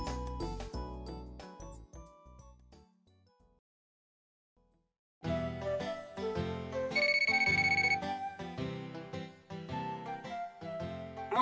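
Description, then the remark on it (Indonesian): A melodic electronic mobile phone ringtone for an incoming call plays loud inside the Sapporo Clock Tower after a short musical lead-in and a brief pause, its bright repeating tones ringing on with no one speaking. “menerima panggilan telepon”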